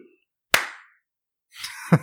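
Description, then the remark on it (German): A single sharp hand clap, made to sync a recording, rings out and decays quickly, followed after a pause by a burst of noisy rustling and a second thumping impact. “Du, wir klatschen bei, bei 1910.”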